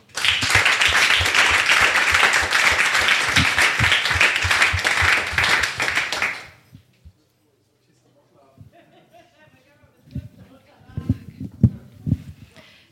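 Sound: audience applause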